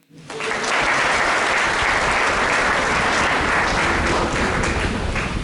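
A crowd bursts into sustained applause, dense overlapping clapping that rises quickly and holds at a steady, loud level for several seconds with no talking over it.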